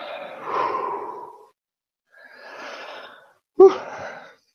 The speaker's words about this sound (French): moi aussi, tu me fais bailler. oui. moi, ça, passe, ça passe souvent par là, dans le bâillement.